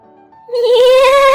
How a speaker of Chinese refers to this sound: 咩！是我那只最小最小的山羊，嘎啦嘎啦！